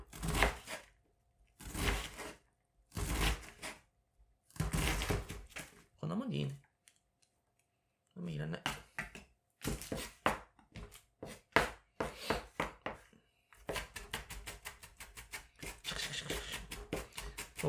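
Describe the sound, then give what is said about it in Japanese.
A knife minces an onion on a cutting board: a few slow, heavy chops, then quickening rapid tapping strokes that build into a fast, steady rhythm, with a brief voice in between. “これ今、みじん切りにしてますよ、玉ねぎをね。音聞こえるかな”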